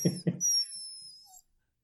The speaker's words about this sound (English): okay, so these some of these aren't loud enough. I'm trying to get whining dogs here.